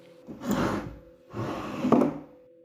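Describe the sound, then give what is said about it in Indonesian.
A cabinet door in the back of an ambulance, a cupboard holding oxygen tanks and medicines, opens and shuts in two broad, scraping wooden sweeps, the second ending in a soft knock, with a faint steady hum underneath. “Gak berselang lama sehabis kejadian itu, terdengar suara dari arah belakang seakan-akan ada yang membuka tutup pintu lemari.”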